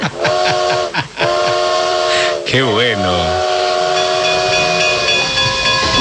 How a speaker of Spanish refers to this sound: Uy, campana, locomotora a vapor.